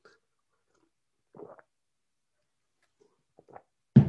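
Soft sipping and swallowing of water in short bursts separated by quiet pauses, then a sudden louder knock at the very end.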